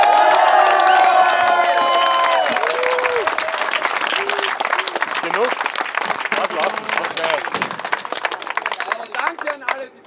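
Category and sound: crowd, crowd applause and cheering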